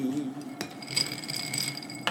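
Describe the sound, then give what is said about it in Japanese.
A few bright glassy clinks ring out over a low murmur as ice and a stirrer knock inside a glass while whisky is mixed with water, with sharp taps near the start, middle and end. “もらいましょうか俺も水割りしようかな水割りする、水割りで氷全部使っちゃった水割りをくださいください”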